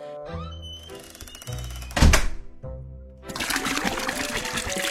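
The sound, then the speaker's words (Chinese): A dull thunk, then water from a bottle pours steadily into a clean porcelain plate in a bright, splashy rush for the last couple of seconds, with a low tonal hum underneath. “将瓶子里的水倒进一个干净的瓷盘子里”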